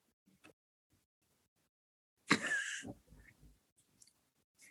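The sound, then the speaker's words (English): A single breathy slurp of a drink, lasting about half a second, followed by faint swallowing and small mouth sounds amid quiet. “I'm gonna take a sip of this drink, and let's hope for the best.”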